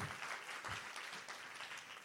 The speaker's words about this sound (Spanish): Alguien le da un aplauso al Señor por eso.